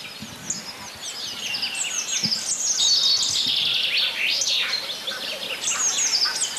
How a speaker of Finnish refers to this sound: Ja teeri pulisee siellä taustalla. Se on Joo. pitkin yötä kuulunut. Sekin kuuluu yllättävän hyvin kyllä.